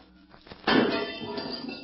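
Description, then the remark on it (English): A glass panel in a locked door shatters in a sudden, loud crash after a short quiet lead-in, followed by a bright, tinkling spill of shards that rings on and slowly fades. The glass is broken to reach inside and turn the key left in the lock. “It is so easy to break the glass, reach inside, and turn the key.”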